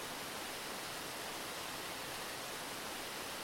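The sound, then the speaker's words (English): A waterfall rushes in a steady, unbroken hiss of falling water, fairly soft and even throughout, with no voices or other sounds on top. “Is there anyone guarding this waterfall?”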